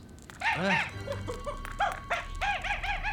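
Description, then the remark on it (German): A monkey gives a rapid series of shrill, rising-and-falling calls in short bursts, loud, with a brief pause in the middle before a final cluster of cries, as it runs off into the dark. “Oh, dieser Affe. Weg ist er, im Dunkeln verschwunden.”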